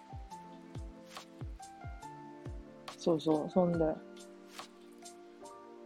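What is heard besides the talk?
heavy rain falling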